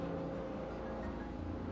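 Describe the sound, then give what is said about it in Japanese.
A doctor helicopter (air ambulance) drones steadily overhead near the Wakayama Medical University hospital in Wakayama City, Japan, its low engine and rotor rumble holding an even level throughout, fairly faint, with no voices present. “ちょっとヘリコプターの音が入ってますね今うちがね和歌山市の和歌山医大って大きい病院の近くなんでドクターヘリがよく通るんですいませんちょっと音が鳴ってますが”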